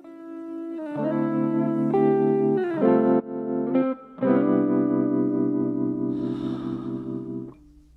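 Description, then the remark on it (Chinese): A Chinese pop song's instrumental opening plays: loud, sustained electric chords that shift every second or so, with a heavy effected, slightly distorted tone, a brief dip, and no singing yet. “我找一首歌，咱们听一首歌，休息一小下，后边咱们接着说这个问题。经常放英文歌了，咱们今儿放一回中文歌”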